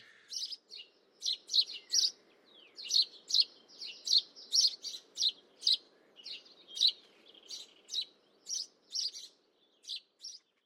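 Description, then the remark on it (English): Serins and sparrows sing in a lively stream of bright, high chirps and tweets, repeated in quick bursts over about ten seconds, with a soft low background hum. “I'll sometimes hear these serins and sparrows as if they're inside the room with me.”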